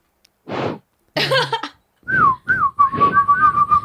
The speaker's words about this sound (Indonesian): Gue gak bisa. Gak bisa siul.